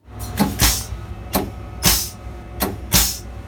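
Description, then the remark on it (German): The sanding device of a VT2E railcar, used when the rails are slippery, sprays sand in a series of short, sharp pneumatic hisses, about six bursts at irregular intervals over a low idling rumble, fairly loud. “Wenn es mal rutschig auf den Schienen wird, ist der VT2E wie alle Eisenbahnfahrzeuge mit einer Sandstreueinrichtung ausgestattet. Diese klingt so.”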